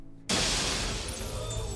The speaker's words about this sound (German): Der gute Moment wird unterbrochen von dem Geräusch von zerberstendem Glas und dann jemandem, der schreiend den Flur entlang rennt.